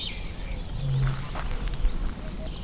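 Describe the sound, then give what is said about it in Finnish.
A few honking calls from Canada geese carry over quiet outdoor ambience at Sylväjärvi lake in the early morning, with a light mist on the water, one low, drawn-out call standing out briefly. “Toi on ihan totta, että Kanadahanheeni niin ja joutsenen äänet hetkittäin saattaa kyllä sekoittua.”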